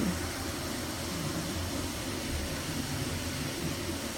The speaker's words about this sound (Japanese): 今シェアオフィスにいるんだけれどなんかカーテンが自動で上がり始めた 雑音入ってる大丈夫かな